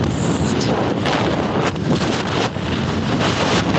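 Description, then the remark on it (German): Loud, continuous wind buffeting a microphone on a beach by the sea as the speaker stands facing into the wind, a dense rumbling roar with gusty swells and no speech. “Und du hörst, warte mal, ich stelle mich jetzt mal in den Wind.”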